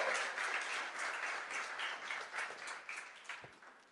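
A crowd breaks into sustained applause for the Lord, many hands clapping densely and steadily for several seconds, filling the space with a bright, even roar that tapers slightly toward the end.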